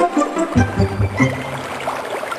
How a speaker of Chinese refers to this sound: 驴子看得入了迷，一不留神，扑通一声摔倒在小河里。